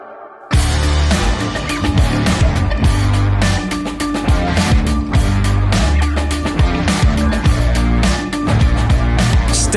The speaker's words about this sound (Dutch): stevige gitaren zoals ze ons beloofd hadden.